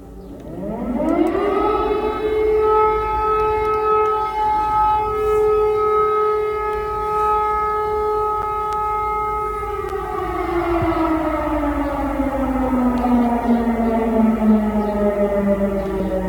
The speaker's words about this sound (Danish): vi begynder jo i Kiev, fordi ja. for præcis to år siden, der lød det sådan her. Ja, der lød de første luftalarmer, de første sirener baner over Ukraines hovedstad.